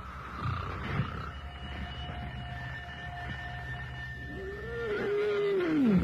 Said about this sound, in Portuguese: Onde se viu uma hora dessa? Um chefe de família deitado roncando.